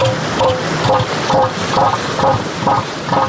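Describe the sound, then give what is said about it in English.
An elephant seal bull's threat call to another male during mating season, made with forequarters raised and mouth open: a loud, deep throbbing series of about seven rapid pulses, each a guttural, resonant knock, repeated at a steady drumming rhythm with no other sounds. “He opens his mouth, during which time his nose falls into his mouth, and then he emits a sound that sounds something like this.”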